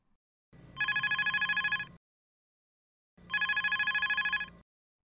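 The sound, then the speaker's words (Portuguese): Two ringback tones from an outgoing phone call placed for a telephone interview, each a buzzy pulsing burst lasting about a second and a half with a pause between, heard through the line alone with no talking. “Entrevista vai ser por telefone, pois ela é uma pessoa bem ocupada. É uma mulher de negócio. Eu vou ligar pra ela.”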